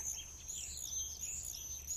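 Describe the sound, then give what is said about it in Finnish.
High, thin screaming calls ring out almost continuously, overlapping shrill trills of common swifts over a steady low background rumble, with no talking. “Viikon luontoääni: Tervapääsky”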